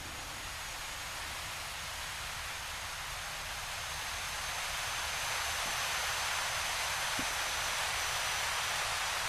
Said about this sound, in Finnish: niin tässä tosiaan lasketaan, lasketaan tuota, virettä niin sanotusti ja ultraäänet tulevat kuuluvia. Toi vinku, joka tuolla taustalla hieman kuuluu, korkeataajuuksinen vinku, niin on nimenomaan lähtöisin näistä keräämisistä kivistä.